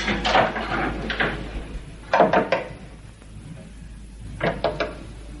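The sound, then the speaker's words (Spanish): Three separate bursts of sharp knocking by a young woman on a door's glass pane, each a quick cluster of raps with pauses between, fairly loud over a low background hum. “De pronto, una joven de unos 25 años, morena y de ojos claros, llega y toca en el cristal de la puerta.”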